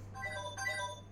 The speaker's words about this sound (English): That's my phone. One sec.